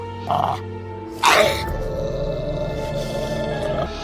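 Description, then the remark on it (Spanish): An enormous dog with sharp, drooling teeth growls in the darkness in a deep, low rumble, opening with two short, harsher snarling bursts before settling into a steady, menacing growl that carries on fairly loud. “Escucho su gruñido mientras veo su corpulento cuerpo dirigiéndose a mí.”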